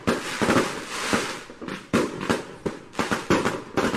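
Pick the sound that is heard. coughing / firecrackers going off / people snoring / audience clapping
firecrackers going off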